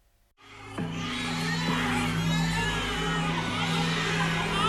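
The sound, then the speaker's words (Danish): Many infants wail at once in a nursery room, lying in large transparent plastic boxes, their overlapping high-pitched cries forming a loud, continuous chorus over a low steady hum, starting abruptly after a brief quiet moment. “Rummet er fyldt med babyer i store, gennemsigtige plastikkasser. Mange af børnene græder, andre ligger og sover.”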